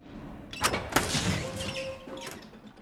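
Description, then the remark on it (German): A heavy door thuds open with a couple of solid knocks, a brief creaking squeal follows, then a dull clunk as it shuts, without speech. “Mann, die Türen sind echt schwer.”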